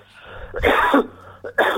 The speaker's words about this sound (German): Entschuldigung, ich musste jetzt immer husten.